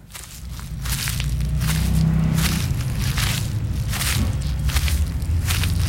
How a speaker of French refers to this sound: Ah oui, ce sont des, feuilles de hêtre. Je reconnais bien la, la texture, à la fois souple euh, et craquante.